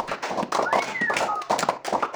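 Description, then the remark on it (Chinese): Several seconds of brisk hand clapping celebrating a show's first sponsor, quick and somewhat irregular, steady in loudness throughout, with a short gliding high tone rising and falling partway through. “最近我们终于收到第一个羊仔赞助 Linga B，来，让我们一起用力的拍手。”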